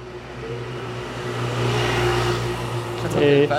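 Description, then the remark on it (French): A combustion car engine hums steadily in street traffic, swelling louder as it revs for a moment, with faint indistinct voices near the end. “et, on a encore un peu de travail puisque on fait ce, podcast dans des conditions extrêmes où on voit beaucoup de moteurs thermiques.”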